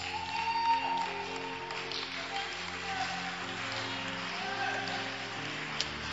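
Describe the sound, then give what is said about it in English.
An audience claps steadily for several seconds, a dense, even patter of many hands, with sustained keyboard-like tones humming underneath. “Those who are clapping, may you receive your miracle very, very fast.”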